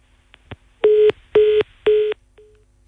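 A telephone disconnect tone after a dropped call: three loud, steady mid-pitched beeps in an even rhythm, preceded by a couple of faint clicks, with no one speaking.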